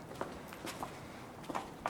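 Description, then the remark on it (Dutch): Several footsteps tread across a hard surface at an irregular walking pace, quiet, with no talking, as people walk through the gate into the courtyard of Muiderslot castle. “en dan gaan we inderdaad eh, door de poort naar binnen. De binnenplaats.”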